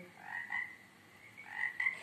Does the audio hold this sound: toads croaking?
yes